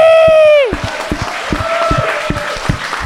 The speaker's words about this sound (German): Und äh, ich will, dass wir uns alle einen fetten Applaus auch für uns selber geben. So, jeder gibt sich einen Applaus für sich selber, dass er ist, Mann!